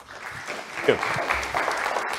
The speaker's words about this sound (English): No, no. Don't applaud now. Wait till the end because the performance pressure is much too severe if you do that.